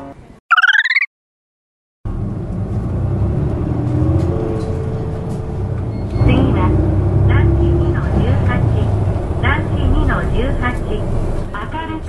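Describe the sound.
A short electronic chime, a moment of silence, then the steady low engine rumble of a moving city bus heard from inside on a ride of about 10 minutes to a housing estate, with muffled voices talking over the drone and the stop Nishi-Ageo Shirakiku Kindergarten entrance announced.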